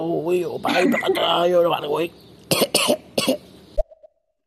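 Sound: coughing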